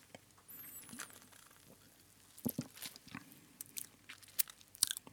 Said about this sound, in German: Jetzt muss ich erstmal noch einen kurzen Schluck trinken.